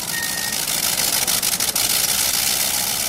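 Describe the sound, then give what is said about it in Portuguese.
An early biplane engine, started by an assistant turning a hand crank, runs loud, a steady rough, rattling drone with a hissy, mechanical edge that holds without pause for the whole stretch, with no voices, as the craft drags a tethered balloon against the wind. “Depois, seu assistente rodou a manivela que dava arranque ao motor, fazendo o aparelho arrastar o balão contra o vento.”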